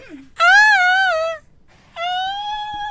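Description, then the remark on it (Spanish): A strained, high-pitched vocal wail tries to reach whistle notes, breaking into two long wavering cries with a short gap between; the pitch wobbles and sounds more like a whimpering howl than singing. “tratando de hacer whistle notes que por lo visto no le sale”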